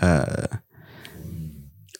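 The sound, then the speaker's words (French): A brief voiced exclamation, then a low, gurgling rumble of a person's stomach lasting over a second, soft, with irregular bubbly pulses that fade out. “là, mon ventre a grondé.”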